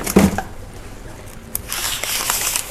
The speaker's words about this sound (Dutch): Ik doe een eh, stukje bakpapier hierin, want ik heb eh, verder geen eh, ander papier.